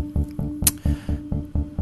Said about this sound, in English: So I think it's about time we pour a little bit of vodka because right now the Packers have me feeling about as cold and dead inside as a Siberian winter.